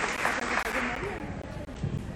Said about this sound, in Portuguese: Mais alguém do Ingá? Porque do Ingá só tem gente bonita, inclusive eu, …. Vamos aplaudir nosso Ingá!